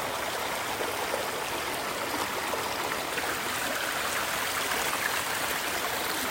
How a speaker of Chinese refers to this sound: 让流水冲刷吧。这里面就是有一些韵律，听流水的韵律。